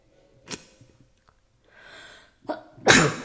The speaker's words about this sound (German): Schlimmer Husten.